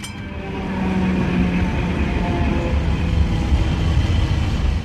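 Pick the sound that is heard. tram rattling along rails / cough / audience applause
tram rattling along rails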